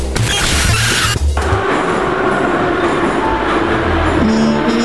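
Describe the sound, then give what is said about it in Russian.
A metro train roars in at a station, a loud, steady rumble with low droning hum tones and a rougher burst at the very start, filling the whole clip without any talking. “Метро.”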